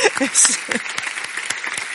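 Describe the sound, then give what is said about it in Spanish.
Dense, steady applause from an audience for the panelists, many hands clapping in a continuous rattling wash, with a few voices briefly audible underneath at the start. “Así que muchas gracias a todos por vuestra paciencia, por vuestra atención y muchas gracias sobre todo a nuestros panelistas que merecen un, más que un gran aplauso.”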